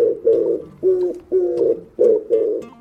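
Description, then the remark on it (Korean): A woman's voice imitates pigeons' cooing at a park spot where pigeons gather, in an impressions segment on Park Myung-soo's Radio Show: five low, throaty coos in a steady rhythm, fairly loud, with short gaps between them and no other sounds. “여자친구는 비둘기 울음소리를 가만히 들어보더니 같이 따라하기 시작하죠.”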